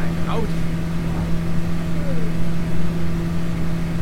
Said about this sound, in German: Ich glaube, das ist einfach ein Bus mit, mit einem Rasenmähermotor drin.